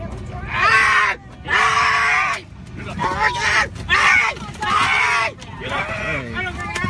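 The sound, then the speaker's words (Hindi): A man, a passenger of United Airlines of the USA, screams loudly in repeated long, strained bursts, with short pauses between them, against a noisy background of murmuring voices and commotion. “America की United airlines के इस यात्री की चीखें लगता है दुनिया भर के देशों में लोगों तक सोशल मीडिया के द्वारा पहुंच चुकी हैं”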